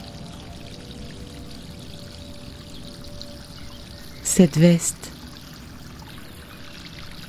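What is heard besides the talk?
water flowing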